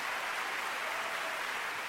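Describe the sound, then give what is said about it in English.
A large crowd of 10,942 hands applauds in appreciation, the clapping blending into a dense, steady roar of many hands that holds at an even level throughout, with no voices heard. “This is the sound of 10,942 hands showing appreciation”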